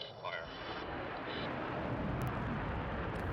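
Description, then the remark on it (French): The main rocket engine of the VSS Unity SpaceShipTwo spaceplane, just released from its White Knight Two carrier aircraft, lights and roars steadily, a dense, loud, crackling rush of noise that holds for several seconds, with a faint tonal whine and muffled voices just at the start. “Donc, le moteur principal qui cette fois-ci fonctionne.”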